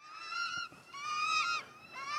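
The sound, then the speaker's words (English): Birds screeching in three loud, harsh, drawn-out bursts, one after another with brief dips between, piercing, with no one talking. “Let's hear them uh, deal with the birds.”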